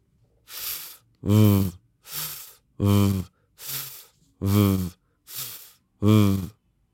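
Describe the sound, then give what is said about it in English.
A person demonstrating pronunciation alternates a breathy, voiceless F hiss, where only air comes out, with a buzzing, voiced V sound made with the same mouth shape, eight short sustained sounds in an even back-and-forth rhythm, clear, with no talking. “So the mouth is exactly the same for V and F, but the V is vocalized and the F is not vocalized. So for the F, only air comes out.”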